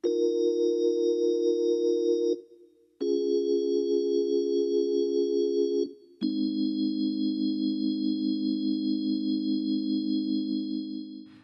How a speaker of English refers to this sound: everything all set up to play keyboard anyway, I thought I might as well put down some quiet organ.